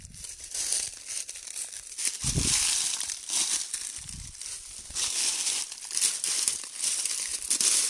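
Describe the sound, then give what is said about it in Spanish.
Footsteps crunch steadily through dry leaf litter covering the whole ground while walking into a forest, each step a loud crackling crinkle with brief low thumps, the rustling nearly continuous over several seconds with no one speaking. “Todo el piso está cubierto en hojarasca.”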